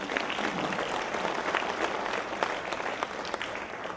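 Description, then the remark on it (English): A church audience claps steadily, a dense, even wash of applause at moderate volume that carries on without pause for several seconds. “I think we should give them a hand for that.”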